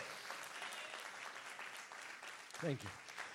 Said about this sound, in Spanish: Si usted lo cree, den un aplauso fuerte a Jesús.